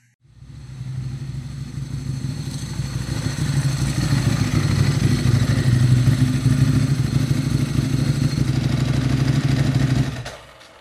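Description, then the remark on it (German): A motorcycle engine, illegally still running as a combustion engine, runs with a loud, low, rough throb, sputtering and chugging unevenly for about ten seconds as it comes to a halt and cuts out to silence. No one speaks. “Seine Maschine, die illegalerweise noch als Verbrenner funktioniert, kommt spotzend zum Halten”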